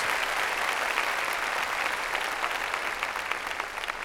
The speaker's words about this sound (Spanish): A ver, démosle palmas fuertes al Señor, antes de las preguntas.